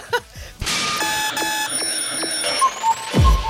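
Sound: alarm clock ringing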